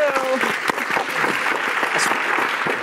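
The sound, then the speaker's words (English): An audience bursts into steady, dense clapping mixed with scattered cheers and voices, showing they have heard of the snack company Jackson's Honest, sustained at an even, fairly loud level for a few seconds. “Yeah, let's hear it, actually. Thank you.”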